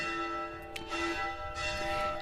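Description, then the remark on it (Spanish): Monastery church bells ring out in a continuous, overlapping peal, heard from the monastery cloister, their tones humming and sustaining without a break. The sound is steady, with no voices. “Se oyen las campanas, claro, porque estamos en pleno en un monasterio y estamos en el claustro.”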